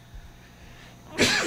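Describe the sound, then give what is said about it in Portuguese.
A single sharp sneeze from the mayor bursts out near the end after a quiet, low-hum stretch, loud with a broad, hissy blast of noise. “Perfeito, desculpa. Saúde, prefeito.”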